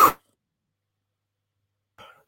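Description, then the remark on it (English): A single sharp cough bursts out and cuts off abruptly as the person coughing mutes themselves mid-cough, followed by nearly two seconds of silence and then a fainter, shorter throaty sound. “I muted myself mid cough as well.”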